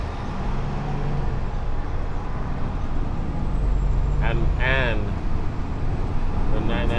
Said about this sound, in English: Alright, now I'm in the back with the engine, so it might be loud.